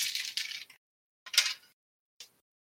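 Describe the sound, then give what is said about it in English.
A handful of dice are dumped out of a dice tray in a bright rattling burst, followed by a second shorter spill and a final small clink, with no voices. “That was just me dumping them out of my dice tray.”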